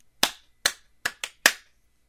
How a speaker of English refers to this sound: You just clapped. That wasn't anything.